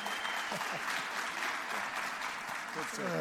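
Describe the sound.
Steady, dense applause from an audience fills the whole stretch, a broad crackling wash of many hands clapping, with a voice briefly rising over it near the end.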